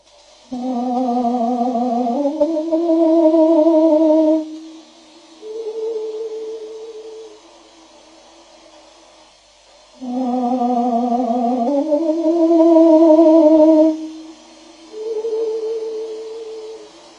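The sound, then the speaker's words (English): Slowed-down birdsong that sounds eerily like a human voice singing: long, sustained tones rich in harmonics, gliding in pitch, arranged in two similar phrases separated by a quieter pause. “That is the sound of a bird. Slowed down to a pace that the human ear mistakenly recognizes as its own.”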